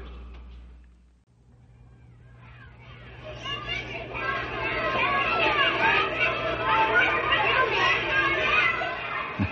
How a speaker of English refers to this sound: the shouting and laughter of children coming home from school is most enjoyable.